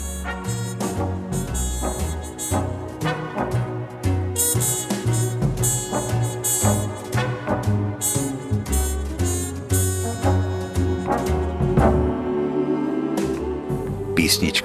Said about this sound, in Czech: Takže naše znělka zní.